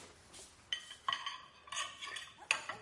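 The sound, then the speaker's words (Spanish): Plates and cutlery clink at a dinner table as a woman brings a plate to the table where her husband and a boy sit: several sharp, bright metallic chinks and a few duller knocks, scattered irregularly over a quiet background with no talking. “En casa de la doctora, ella lleva un plato a la mesa donde están su marido y Lucas.”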